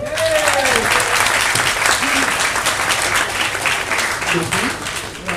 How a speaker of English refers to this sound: Thank you. A round of applause, man.